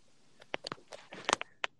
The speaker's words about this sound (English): you eating something or doing something that caused more background noise? I'm eating. All right. All right. Nobody stopping my snack time. It's dinner. Got some spaghetti on my plate with some orange juice, homie.